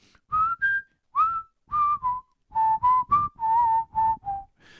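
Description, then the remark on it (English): A person whistles a tune alone, a steady melody of a dozen or so clear notes in short connected phrases, fairly loud, with no talking. “Uh, there's a bit of a whistling part in that.”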